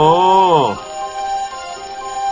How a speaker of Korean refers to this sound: 누리는 왜 이렇게 알람 소리가 큰 시계를 준 거야?